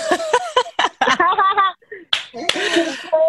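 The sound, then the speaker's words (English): A few sharp, crisp finger snaps ring out at irregular moments, mixed in with people talking and laughing over them. “I wish I like I'm snapping my fingers.”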